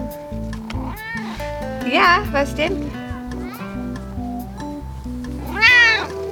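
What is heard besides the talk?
kitten meowing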